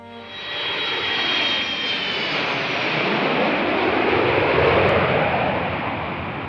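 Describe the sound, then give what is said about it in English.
An aeroplane flies overhead, its engine roar building quickly and holding as a loud, steady rush with a thin whine that fades early on. No voices are heard. “Okay, so let's take an aeroplane in the sky.”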